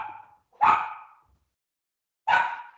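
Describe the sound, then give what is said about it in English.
A dog barks, two sharp, loud barks about a second and a half apart, following the fading tail of an earlier bark, with silence between them and no voices. “Oh, I've got to let the dog out.”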